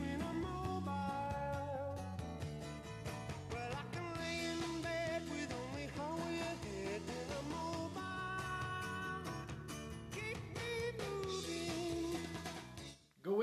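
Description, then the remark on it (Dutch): A full-band rock song driven by electric guitar plays continuously at a steady, loud level, with no one talking over it, before cutting off abruptly at the end. “Goed gitaartje, lekkere plaat. Fantastische sound heeft dit nummer.”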